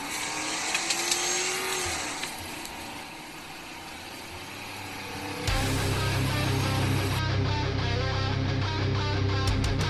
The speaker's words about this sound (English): Now sit back, relax, and enjoy the orgasmic sound of a Crown Vic.